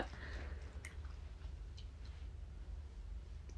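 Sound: chewing gum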